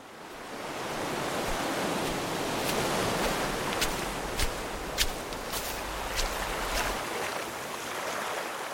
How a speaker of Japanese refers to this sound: 地中海沿いに広がる中東の国イスラエル波寄せる浜辺を眺めているとはじけた水しぶきからこの地で暮らす人が想像した短くも壮大な物語が聞こえてきます